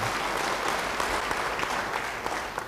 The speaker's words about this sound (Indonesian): Yang setuju beri tepuk tangan bagi dia.